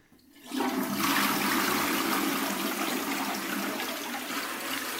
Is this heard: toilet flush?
yes